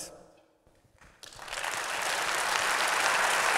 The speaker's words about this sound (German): Applaus